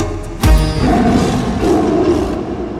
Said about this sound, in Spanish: Gruñido de tigre.